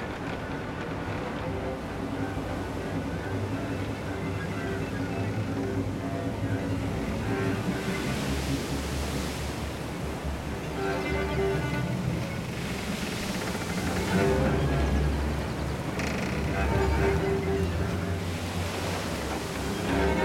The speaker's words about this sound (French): Le vent se lève et la mer s'agite.